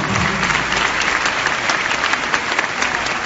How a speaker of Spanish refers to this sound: Dame un fuerte aplauso al campeón.